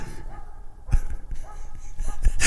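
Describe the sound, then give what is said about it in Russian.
A dog barks a few times in short, irregular bursts, moderately loud against a noisy background, with the last bark sounding harsher and louder. “Давайте чуть-чуть послушаем на тишине, как лает собака.”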